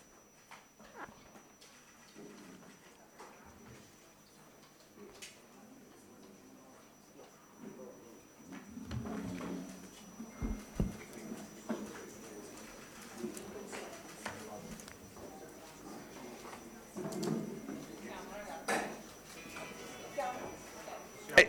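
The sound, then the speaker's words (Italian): Chairs being shifted around as people come in: irregular clunks, knocks and short scrapes, growing busier partway through, with a low murmur of people in the background. “c'è un giro di sedie, non abbiamo fretta, tanto mi sa che abbiamo dormito tutti poco, quindi...”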